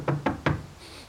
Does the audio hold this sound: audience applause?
no